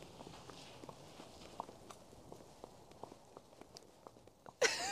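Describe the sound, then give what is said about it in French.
A horse named Easy walks very slowly under a rider, its hooves landing in soft, steady thuds. A sudden burst of rustling noise cuts in at the very end. “Bon, fait que bref, si je vous laisse entendre la vitesse du pas à Easy, vous allez comprendre que c'est vraiment pas vite.”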